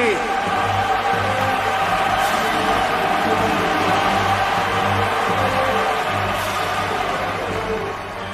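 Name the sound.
applause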